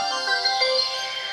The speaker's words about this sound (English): That's a nice little noise. That's the sound of the Braille machine closing now because I've got to the end of my notes.